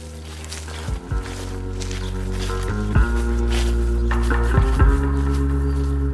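Footsteps crunch and rustle through dead leaves in a wood on a farm, a few irregular steps, partly masked by a steady, loud low engine drone running throughout.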